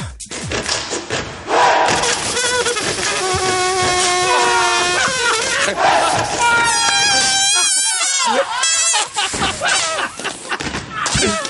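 A gumboot dance class in full swing, recorded with a microphone inside breathable leggings, slightly muffled: a dense, continuous clatter of stomps and thuds under loud group shouts and chanted calls.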